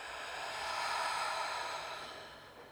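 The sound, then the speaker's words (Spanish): A single long, deep exhale through the mouth during a guided meditation breathing exercise, a soft breathy rush that swells and slowly fades over a few seconds, fairly quiet, with no talking. “Exhala por boca.”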